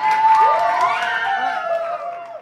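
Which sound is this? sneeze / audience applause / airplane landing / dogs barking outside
audience applause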